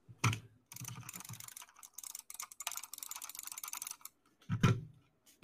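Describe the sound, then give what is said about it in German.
Rapid clicking and tapping, like a computer mouse being hammered frantically, with dense bursts of sharp clicks and a few thumps, no voices. “Man hört nur die Mausvergewaltigung.”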